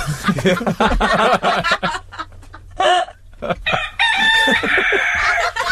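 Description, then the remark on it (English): A rooster crows loudly, ending in a long, drawn-out sustained note, after a stretch of choppy clucking or chuckling sounds and a brief lull. “he doth crow. He doth crow.”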